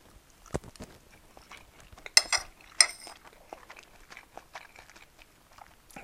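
Quiet sounds of eating fried rice: soft chewing and crunching with scattered clicks, plus two sharp metallic clinks of cutlery against a dish partway through. No one speaks.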